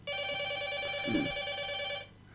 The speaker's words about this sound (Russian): Есть еще один телефонный звонок, мы продолжим, да, об этом говорить.